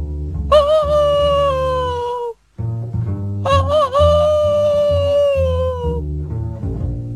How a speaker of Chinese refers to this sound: 狼听到公鸡的叫声，一抬头，发现了站在树枝上的公鸡。